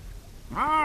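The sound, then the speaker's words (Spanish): A single lynx call, a drawn-out, meow-like wail with a rising then falling pitch, fairly loud after a brief stretch of quiet background hiss. “Este es el lince.”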